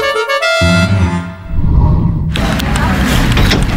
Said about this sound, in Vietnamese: sếp nhẹ nhẹ thôi chứ tự nhiên sếp rầm rầm vậy hơi cái cánh cửa của em em không có tiền đền nha